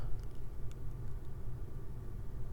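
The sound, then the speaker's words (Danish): Muffled, steady low rumble inside a car in a residential neighbourhood in Troense, with the doors closed, a constant droning hum and a few faint ticks, no voices. “Jeg sidder her i Troense i en bil.”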